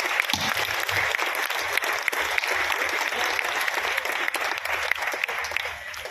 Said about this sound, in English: And I'd like you to first give a round of applause to all the extraordinary people who make it possible, who all belong to the city.